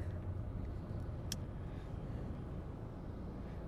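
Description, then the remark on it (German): A steady, deep rumble of a car driving in rush-hour traffic along a busy road, heard from inside, with a brief sharp tick partway through and no voices. “Also es ist einfach immer irgendwie ein Arsch voll Verkehr, weil alle möglichen Menschen irgendwelche Käfer fahren müssen.”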